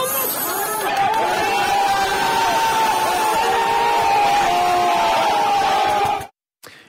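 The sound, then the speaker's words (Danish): A large street protest crowd in Iran, demonstrating after the death of 22-year-old Mahsa Armani, chanting and shouting together, a loud, dense wall of voices with sustained rising tones, continuing steadily for about six seconds before cutting off abruptly. “Lige nu ser vi demonstrationer i Iran efter den 22-årige Mahsa Armanis død.”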